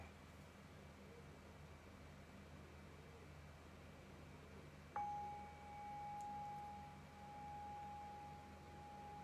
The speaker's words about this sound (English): So I'll ring the bell and I'll bring us into this guided meditation.